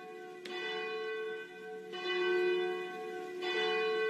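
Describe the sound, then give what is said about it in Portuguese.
The bell of Our Lady of Aparecida rings three times at a slow, steady pace, each loud strike blooming into a long, shimmering hum that overlaps the next, with no voices present. “Momento que bate o sino da Nossa Senhora de Aparecida, momento que a gente pede ao Pai a proteção desde este momento, para que a gente possa conversar com Nosso Senhor.”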